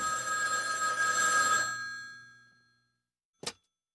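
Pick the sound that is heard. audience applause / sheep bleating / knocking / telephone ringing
telephone ringing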